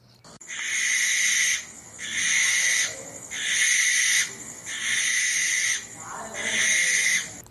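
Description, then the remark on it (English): A barn owl gives five long, harsh, hissing screeches in a steady rhythm, each lasting over a second with short gaps between, loud with nothing else around. “Next, the barn owl.”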